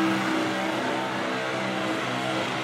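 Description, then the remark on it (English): The engine of the burnout car Tough Street roars steadily at full throttle, the accelerator foot buried against the firewall, a loud, sustained drone with harmonic whine, dense and unbroken for the whole stretch, with no voices. “And now that foot buried hard up against the uh, the engine bay firewall.”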